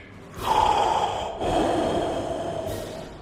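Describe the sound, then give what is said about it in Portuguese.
Two heavy, hissing mechanical breaths, one drawn in and one pushed out, loud with a filtered, respirator-like rasp, like a sci-fi villain's mask breathing. “Agora volte ao podcast e esqueça que estou respirando pesado em teu pescoço.”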